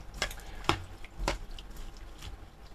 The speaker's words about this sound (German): Das Ei springt hier schon in der Pfanne rum, da wird ja das Ei in der Pfanne verrückt, sag ich mal so, ne?